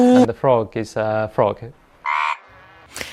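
Frogs give a run of short, throaty croaking calls, fairly loud, followed by one longer buzzy croak after a brief pause, with a faint squeak at the end.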